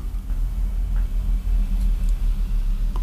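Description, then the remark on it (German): A heavy truck rumbles past outside, heard from a bedroom used as a recording studio: a steady deep low-frequency drone lasting several seconds, muffled as if heard through a window, with no talking. “Ein dicker LKW fährt vorbei in unserem Studio, das eigentlich unser Schlafzimmer ist.”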